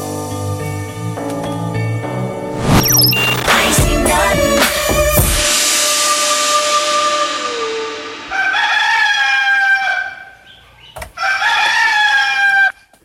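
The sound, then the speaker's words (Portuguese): A rooster crows loudly, its long cock-a-doodle-doo rising and sustained, followed by a couple more shorter crowing bursts near the end, with no talking. “É a última vez que eu vou soltar esse galo.”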